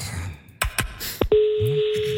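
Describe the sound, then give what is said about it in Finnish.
Telephone dialing sounds as a call is placed to a holiday-makers' helpline: a few quick, sharp clicks, then a steady, unbroken phone tone that holds to the end, with faint murmuring voices underneath. “Haluaisitko soittaa haluan, ja kysyä sen vinkin?”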